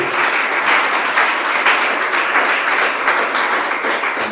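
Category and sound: crowd, audience applauding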